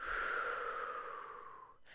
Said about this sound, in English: If you see one of the five big logos, people fall into this breathing pattern. He says, and as soon as you see that logo, you need to breathe in and breathe out